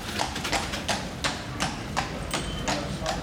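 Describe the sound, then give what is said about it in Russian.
Horse hooves clip-clop on cobblestones in a steady, even rhythm, about three hard strikes per second, over a low rolling rumble like a carriage's wooden wheels on the cobblestones. No one speaks. “Даже когда вот появились кареты, то есть можете себе представить там деревянные колеса по брусчатке, да, звук какой. И это только одна карета, а их как бы там проезжало несколько по, по копыта лошадей.”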